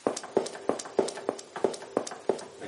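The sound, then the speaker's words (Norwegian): Footsteps played on a synthesizer in a steady, brisk rhythm, about nine evenly spaced hard steps with a slightly artificial, clip-clop quality, moderately loud, with no talking. “Det er skritt.”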